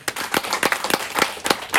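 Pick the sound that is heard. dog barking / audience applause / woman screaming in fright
audience applause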